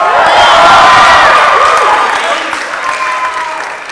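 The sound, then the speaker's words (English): An audience breaks into steady, dense applause, with scattered cheers and voices mixed into the clapping; it stays loud throughout and eases off slightly toward the end. “Don't clap.”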